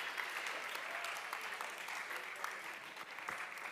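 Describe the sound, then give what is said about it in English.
An audience claps steadily for volunteers for several seconds, a dense, even wash of many hands with no break and no voices standing out. “Can you clap for these amazing volunteers?”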